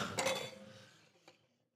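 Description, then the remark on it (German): Glasses of a German wine bottled in France clink together in a toast, a bright ringing strike that fades slowly, followed by a softer second tap a moment later. No voices are heard. “Ja, cheers erstmal.”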